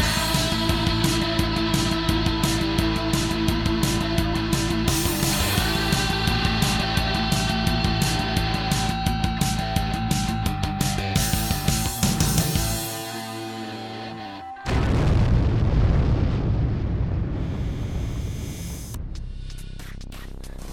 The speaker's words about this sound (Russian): вот как звучало в песне, э, которая сейчас проиграла э, под названием «…»